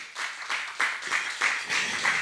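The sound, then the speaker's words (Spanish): An audience applauds the Lord with dense, steady clapping that swells in repeated waves, bright and crackly, with no voices standing out. “Le quiere dar un aplauso al Señor por ello.”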